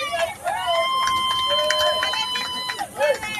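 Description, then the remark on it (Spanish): A police patrol car siren wails steadily, its tone sliding up and down, loud, as the patrol car passes on the side of the Pancho Martín stadium during a baseball game, with a murmur of background voices underneath. “Ha sido una patrulla con códigos.”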